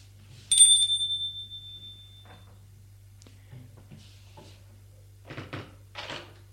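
doorbell ringing

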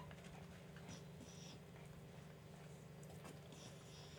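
dog breathing heavily

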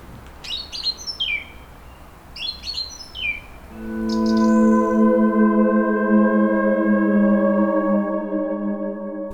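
birds chirping

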